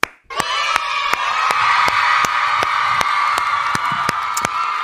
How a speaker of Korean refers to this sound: 그냥 위로의 박수 쳐주세요.